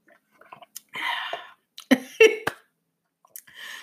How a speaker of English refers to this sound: hold on let me get me a little sip